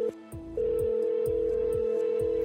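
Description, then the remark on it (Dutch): A steady electronic ringing tone of an outgoing call to a mobile phone hums continuously, with soft rhythmic thumps pulsing underneath roughly twice a second, clear with no voices. “Sharon hangt op en belt Leanne op haar mobiel. De telefoon gaat over. En over. En over.”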